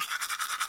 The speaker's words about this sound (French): le brossage de dents,